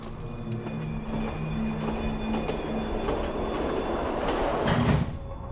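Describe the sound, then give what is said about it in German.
A train starts to move and rumbles steadily along the rails with a continuous low roar, faint metallic whines and tonal hums over the top, swelling slightly louder near the end before easing off. “Ich habe eine Packung Chips aufgemacht und gewartet, bis der Zug losfährt.”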